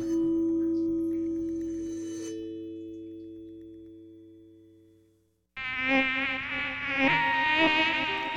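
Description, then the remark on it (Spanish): A mosquito's whining buzz bursts in loudly after a steady humming tone fades away, its pitch wavering continuously for the last few seconds. “Los mosquitos pican, molestan.”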